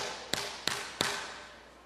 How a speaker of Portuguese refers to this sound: Quem está escutando tapa no púlpito?